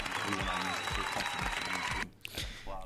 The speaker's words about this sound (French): Écoute, je t'applaudis. Merci.